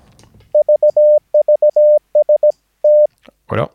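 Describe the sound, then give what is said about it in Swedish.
A steady single-pitch tone from a radio used as an oscillator keys on and off in short dits and longer dahs, sending several groups of Morse code with a small error at the end, clear, followed by a brief burst of noise at the end. “Jag tänkte att jag använder radion som oscillator i det här fallet för att eh, demonstrera morsekod.”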